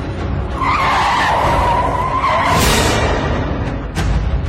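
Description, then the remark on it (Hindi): A car being driven very fast skids to a sudden stop: its tires screech in a long, loud skid, the squeal holding steady before the vehicle lurches to an abrupt halt amid engine rumble and road noise. “गाड़ी रोक दी क्योंकि रियर व्यू मिरर में एल्बर्ट खुद को देख पा रहा था”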